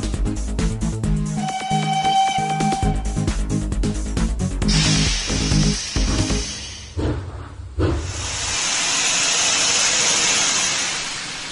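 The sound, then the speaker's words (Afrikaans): A train arrives with loud bursts of steam hissing, first a sharp burst, then a long steady release after a brief pause, following a short stretch of music. “Is dit dalk die skinny trein wat ek daar gewaar?”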